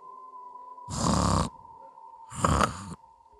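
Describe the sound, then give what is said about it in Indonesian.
Two loud, rasping snores of a person, each lasting about half a second and spaced a second apart, over a steady high-pitched hum in the background, heard in a hot toilet room with a very high ceiling. “Pas lagi pipis, tiba-tiba di telinga aku kedengaran suara orang ngorok.”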